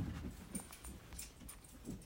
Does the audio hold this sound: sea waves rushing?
no